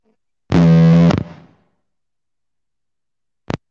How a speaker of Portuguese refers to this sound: Meu som está falhando? É, eu tô, tô ouvindo uma interferência só, eu tô me ouvindo também.